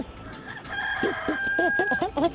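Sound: rooster crowing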